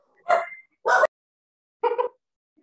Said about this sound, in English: oh, those dogs.